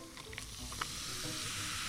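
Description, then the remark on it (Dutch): A steady, bright fizzing hiss of Diet Coke poured over a lot of ice, with a few sharp clinks early on before the carbonation settles into a continuous crackle. Fairly loud, no voices. “Dit is het geluid van een Diet Coke with a lot of ice”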